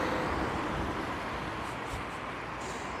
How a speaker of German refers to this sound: Auch wenn ihr dann eine schöne Geräuschkulisse habt. Brumm, brumm, brumm, brumm. Autos fahren vorbei. Brumm, brumm.